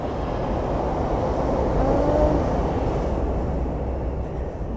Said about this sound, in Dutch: dat was de trein.